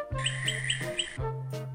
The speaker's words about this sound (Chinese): 有一天早晨，夜莺遇见了一寸虫。夜莺说：“量我的歌。”